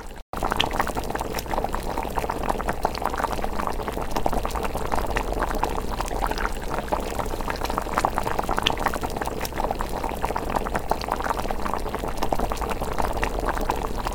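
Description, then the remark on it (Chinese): Salted water boils steadily in a pot before spaghetti is added, a continuous bubbling roar with dense crackles and pops running unbroken for the whole stretch, fairly loud and with no voices over it. “接着我们要来煮意大利面，先准备一锅水，放入少许盐巴，待它水滚后再放入意大利面，煮六分钟即可。”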